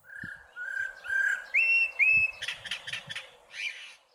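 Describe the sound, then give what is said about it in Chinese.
A Eurasian blackbird calls: a string of clear whistled notes stepping upward in pitch, then a burst of harsher, scratchy chattering notes, fairly loud with no voices. “其实都是一只，就是都是乌冬的叫声。”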